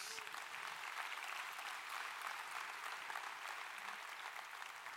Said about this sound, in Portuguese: Quem recebe, dê um aplauso ao Senhor Jesus.